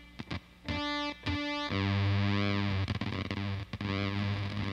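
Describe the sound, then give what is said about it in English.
A heavily distorted guitar effects unit plays loud, its pitch lurching abruptly an octave between frequencies, with short stuttering bursts at first, then sustained swooping tones that bend up and back down. “where if you just kind of screw with it a little bit, like you can get it, it'll just like kind of like jump from one frequency uh, you know, an octave in between them, and um, and create something just like kind of really unique.”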